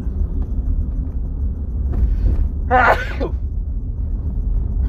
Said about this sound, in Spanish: Perdón. Es que esas veces que traes, como que traes un estornudo ahí atorado y nomás nos termina a salir y, entre que sí, entre que no.